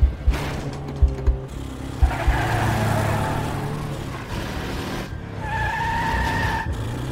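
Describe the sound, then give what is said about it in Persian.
A car races through back alleys and side streets, evading a pursuing car, its engine revving hard while tires squeal and skid through repeated sharp turns, loud, with a few thumping jolts early on and no voices. “ماشین رو انداخت کوچه پس کوچه همینطوری خیابونا رو به هم وصل میکرد و میرفت جلو انقدر پیچ و پیچ خوردیم که خودم هم نمیدونستم دقیقا کجاییم”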